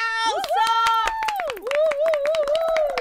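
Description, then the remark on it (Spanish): An audience claps for guest Beto Torres in a lively burst of sharp, rapid hand claps, loud and steady, while a sustained wavering tone glides up and down underneath for about three seconds. “Beto Torres, aplauso.”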